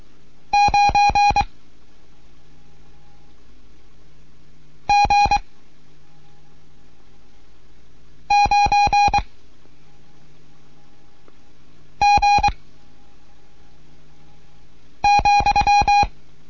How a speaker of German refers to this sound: Hier ist Delta Juliet 1 Kilo November mit einem Morseunterricht für Anfänger. Wieder zwei Gruppen.